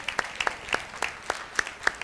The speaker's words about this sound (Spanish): ¿Cuántos están pasando por pruebas? Amén. Vamos a dar un aplauso a todos los que están pasando por pruebas.